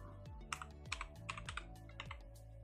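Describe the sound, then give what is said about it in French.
Clicky keystrokes on a computer keyboard as someone types a name, in quick irregular bursts, several keys tapped in succession with brief pauses, over a steady low hum and no voices. “Je vais le taper.”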